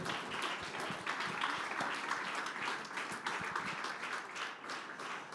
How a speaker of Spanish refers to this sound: De ese aplauso de alabanza al Señor. Aleluya.